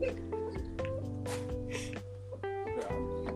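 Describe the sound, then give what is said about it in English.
A voice imitates a cat, making a string of drawn-out, sing-song meows that shift in pitch over a steady low hum, loud for a few seconds. “sound like a just a singing cat. Meow. What the fuck? Where'd that come from?”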